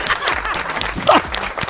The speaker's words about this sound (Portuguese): Hoje teremos ele aqui! Vocês vão julgar! Ele já está entrando! Receba com aplausos!